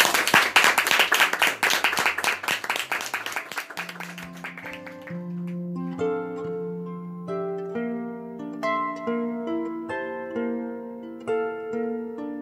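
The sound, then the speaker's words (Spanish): Audience applause as the show says goodbye, a dense crackle of many hands clapping, loud at first and fading over about four seconds as a gentle melodic music track takes over. “Entonces, un aplauso y nos despedimos.”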